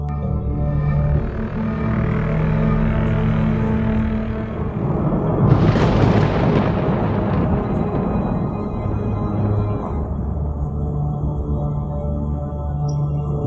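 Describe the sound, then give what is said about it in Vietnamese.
Thunder at night in heavy, growing rain: a steady low rumble builds into a sudden, sharp crack partway through, then rolls away. Heavy rain hisses throughout, with a droning background underneath. “Trời càng lúc càng mưa to Tiếng sớp nhì nhằng như xé toạc bầu trời đêm tối”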